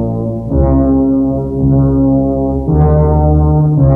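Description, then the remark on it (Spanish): Eerie theme music from a 1980 horror film: deep, sustained droning tones like low brass or synth, swelling and shifting pitch a few times, loud and ominous with no voices. “Estoy hablando de The Shining, El Resplandor. ¿Qué tema más inquietante este? ¿Ah? ¿Qué canción más inquietante?”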